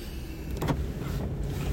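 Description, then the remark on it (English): Someone gets back into a car to drive off: a low interior rumble with a couple of short knocks and rustles of movement, fairly quiet, with no one talking. “It's um, it's really quite quite interesting while I just get back in the car here and get going.”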